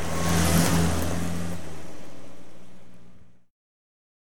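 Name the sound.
car engine revving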